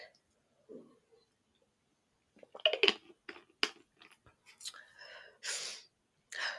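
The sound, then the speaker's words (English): Soft sips and swallows of water, broken into short wet clicks and bursts after a quiet pause, followed by a breathy exhale. No one speaks. “um i'm actually gonna take some water first because my throat I'm sorry, my mouth is starting to get dry.”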